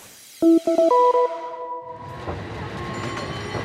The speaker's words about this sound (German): San Francisco Stadtmitte. Ein Cable Car, die legendäre Straßenbahn der Stadt, kämpft sich gerade die sehr steile Powell Street hoch.